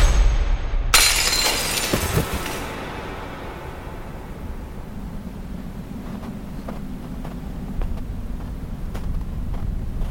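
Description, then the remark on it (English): A window's glass shatters in one loud, bright crash, with debris tinkling briefly after, then a steady low rumble of wind and a few faint scattered ticks. “We have to go out the window.”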